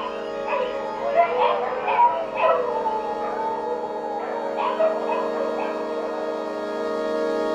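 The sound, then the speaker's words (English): Dogs yip and whimper in two clusters of short, high calls over a steady humming drone of night insects. “the coquís, of course, and the crickets, and the dogs.”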